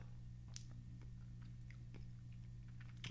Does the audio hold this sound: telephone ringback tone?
no